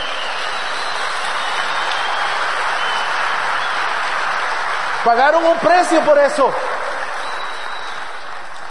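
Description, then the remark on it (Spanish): Steady, dense applause from an audience applauding the professionals present fills the whole clip at a constant level, with a man's voice briefly speaking over it near the middle. “Démosles el mejor de los aplausos.”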